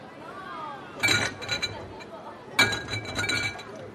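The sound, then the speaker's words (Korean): Crates holding liquor bottles clink and rattle together in two loud bursts, each followed by a short jangling tail, with a faint murmur of voices underneath. “술병을 담는 상자들이 부딪히는 소리.”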